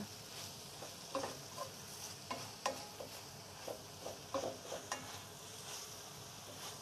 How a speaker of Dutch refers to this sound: De kool staat nu ongeveer 5 minuten te stoven. Ik haal het deksel even van de pan en dan roer ik het even om. Je kunt het misschien nog wel horen.